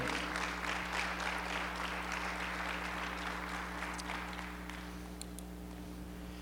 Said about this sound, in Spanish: Alguien puede dar un aplauso al Señor. Aleluya.